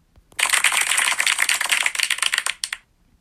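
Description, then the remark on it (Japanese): A short burst of applause sound effect from the Radiotalk app, many dense overlapping claps lasting about two and a half seconds, loud, then cutting off abruptly with no voices. “あとは他にもなんか効果音が入るんですよちょっと遊んでみようかなえー、っとね拍手とか入りますいきますよ”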